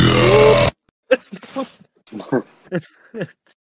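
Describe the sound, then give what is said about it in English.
A single loud, bass-heavy burp with a distorted, blown-out quality bursts out for under a second, then cuts off and gives way to people talking. “It sounds like a bass boosted burp.”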